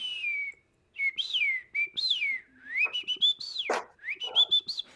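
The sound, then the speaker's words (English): A person whistles an imitation of rainforest bird calls as ASMR: clear warbling phrases that slide up and down in pitch, broken by short pauses, with no talking. “Sounds of the Rainforest.”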